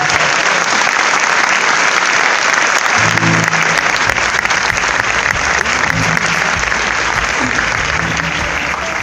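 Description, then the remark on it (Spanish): An audience applauds loudly and steadily for the full stretch in tribute to a singer, dense clapping with a few faint low tones and murmurs beneath it. “Un aplauso para ….”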